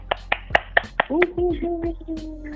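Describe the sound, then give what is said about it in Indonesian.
About six sharp hand claps in a steady, fairly quick rhythm, followed by a drawn-out voice that carries on over the last claps like an enthusiastic call or cheer. “Wow, tepuk tangan dulu yang gemuruh.”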